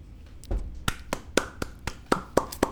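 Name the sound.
applause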